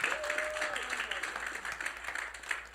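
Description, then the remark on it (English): An audience claps together for the Lord Jesus in a dense, steady wash of applause that holds at an even volume for the whole stretch, with a brief raised voice near the start. “Clap for the Lord Jesus.”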